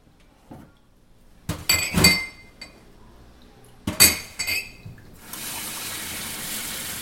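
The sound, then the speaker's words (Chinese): Cups clink against each other in two short bright clusters of ringing knocks as someone prepares to wash them, followed by a steady hiss of running tap water that continues to the end. “然后你听一开始的时候啊，他其实正在准备要洗杯子，所以很明显的有那个杯子碰撞的声音，那时候最好认，好不好？”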